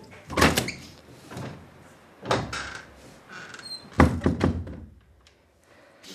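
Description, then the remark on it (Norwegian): A door is opened to let a cat named Shrimpen out, with a few heavy thunks and rattles, followed by a brief sliding scrape and a final louder knock as it moves, with quiet pauses between the bursts. “Skal jeg slippe deg ut?”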